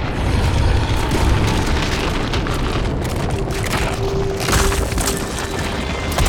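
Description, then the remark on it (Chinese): A heavy, continuous rumble of thunder from a sudden thunderstorm rolls on without a break, deep and loud, with a hiss like heavy pouring rain layered over it and a faint steady tone surfacing toward the end. “也开始下起了大雨，所有人都被这突如其来的雷雨吓着了。”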